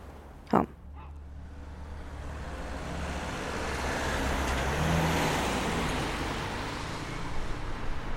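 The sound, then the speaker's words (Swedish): A single sharp thud like a car door shutting as two people get out of a car in a residential area of Västervik, Sweden, in 2022, followed by a steady rumble of road traffic and engine noise that swells slightly and holds at a moderate level. “2022, hoppar jag och min kollega Madde ut ur en bil”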